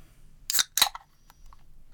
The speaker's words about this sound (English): Let me crack my beer. Okay.